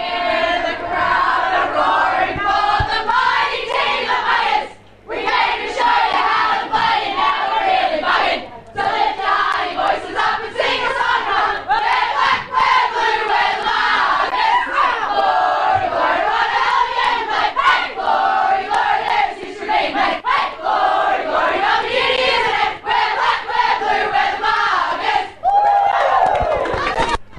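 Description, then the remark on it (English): A football team sings its club song together, loud and rowdy, voices shouting the tune in unison with cheering mixed in, continuing energetically for nearly half a minute. “I've always said you can tell a lot by the way they sing their song about how they finish a game, where they're singing it loud and proud of, oh, what a great win.”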